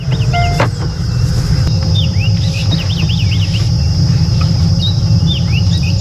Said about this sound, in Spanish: Hoy les mando la postal sonora desde un safari.